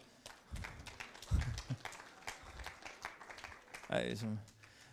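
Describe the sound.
An audience at a meeting breaks into steady applause for a man, many hands clapping in a dense, even patter for several seconds, with a voice briefly calling out over it near the end.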